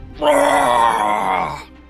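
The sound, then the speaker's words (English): A voice imitates the booming bullfrog scream of a devil toad bitten on the neck by a ghost dog: one loud, sustained, strained groan lasting about a second and a half, rich and rasping with a steady low pitch, then cutting off. “His ghostly jaw just rips into the devil toad's form and he just lets out more of these like booming bullfrog screams.”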